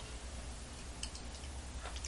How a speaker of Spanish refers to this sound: Jueves nublado y con pronóstico de lluvia aquí en la capital cubana, así que no voy a revolver mucho al café porque está bien tomarse un sorbito caliente y amargo en este 6 de octubre de 2022. Allá voy.